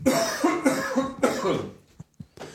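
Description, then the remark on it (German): A loud bout of several harsh coughs in quick succession, trailing off into a couple of faint, short throat sounds after a brief pause. “Die Räuspertaste ist so weit weg, dass du komische Bewegungen machst, wenn du husten musst.”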